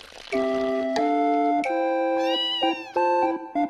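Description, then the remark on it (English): A hungry cat meows loudly, a quick run of insistent, tonal meows with rising and falling pitch, one flowing into the next with no other voices present. “What if I give the soup to the hungry cat?”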